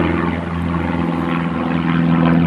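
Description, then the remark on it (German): A small Cessna propeller plane circles overhead above Weltenburg Abbey by the Danube gorge, its engine a continuous low hum with a buzzing, slightly wavering tone that holds loud for the whole stretch. “Oben eine Cessna, die gerade kurft.”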